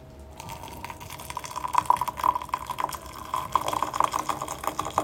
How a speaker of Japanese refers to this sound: ああいい香りはいではお湯を注ぎます